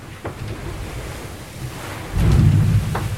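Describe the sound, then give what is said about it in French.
Rough, raging sea waves surge around a fast-moving sailboat with gusting wind buffeting the microphone, a heavy rumbling swell building louder near the end, with brief splashes of spray. “C'est très bizarre quand même de se retrouver comme ça tout seul dans une mer déchaînée, avec le bateau qui avance comme une bombe.”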